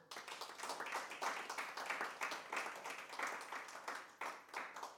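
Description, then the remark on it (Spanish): A church audience breaks into sustained applause for the Lord, dense overlapping claps forming a steady, crackling wash that keeps up for several seconds with slight swells in loudness. “Regale un aplauso al Señor.”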